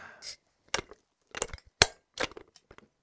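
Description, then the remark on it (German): A beer bottle opened with a bottle opener: a short airy hiss, then a series of sharp metallic clicks and clinks against glass, one crisp louder snap in the middle, with no talking. “Wollen wir ganz noch kurz unsere äh, Biere Ja, ja, unbedingt”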